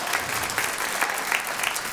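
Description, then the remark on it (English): A crowd claps steadily, a dense, even patter of many hands with no clear individual beats, holding a constant moderate loudness for the whole stretch with no voices on top. “You could clap for that.”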